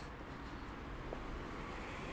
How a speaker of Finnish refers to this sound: No, tässä kuuluu ympärillä paljon tätä autojen rengasmelua, jos sitä nyt meluksi voi sanoa.